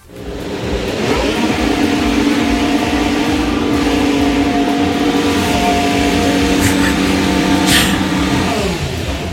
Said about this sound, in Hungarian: valószínűleg ez egy Form 1-es autó lehetett